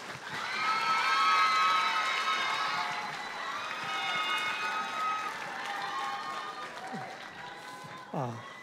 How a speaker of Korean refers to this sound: 우리 박수로 맞이하겠습니다.